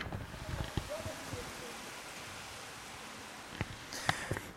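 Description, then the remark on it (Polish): Sleet and hail fall outside an open window as a steady, soft hiss, with a few sharp ticks of ice striking near the end. “muszę podnieść żaluzję i powiem Wam, że no naprawdę to jest deszcz ze śniegiem.”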